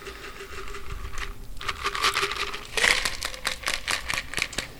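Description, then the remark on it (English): A cream-based cocktail is double strained through a Hawthorne strainer on a shaker tin into a coupe glass: a steady crackly trickle of liquid with light metallic rattling and patter, continuous for several seconds, with no one speaking. “I'm going to place my Hawthorne strainer on top of the shaker tin, and I'm going to double strain.”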